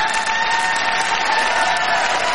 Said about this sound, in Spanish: Bueno, aplausos para el chef José Andrés